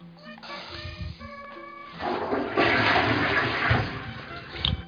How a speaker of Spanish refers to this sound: Esto de tener cisterna en Dolby Surround me mola, ¿eh?